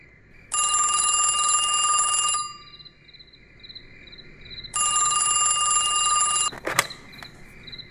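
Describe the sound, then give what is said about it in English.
A telephone rings twice, each shrill, buzzing ring lasting about two seconds with a pause between, followed by a sharp click as the receiver is picked up. A faint insect-like hum runs underneath. “Don't make me star 69 your asses.”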